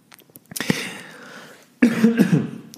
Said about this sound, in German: So, sorry, da musste ich, äh, da musste ich gerade mal husten.